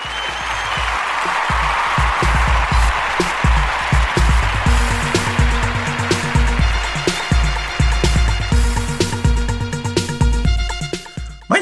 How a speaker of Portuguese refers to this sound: Salva de palmas para os góis.